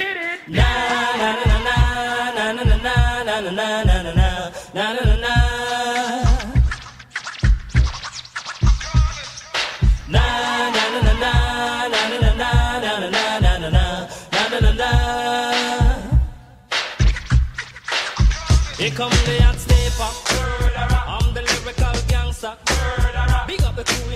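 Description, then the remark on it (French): A hip hop track built on a punchy, looping sampled drum break, with steady loud beats under layered melodic tones and scratchy turntable-like accents, playing continuously with no talking. “il a aussi été utilisé comme un sample plus à la bien, un peu à la manière d'un instrument, d'une batterie”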